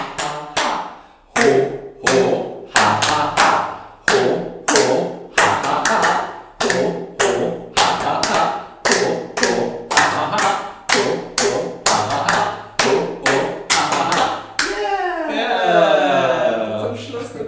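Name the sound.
rhythmic hand clapping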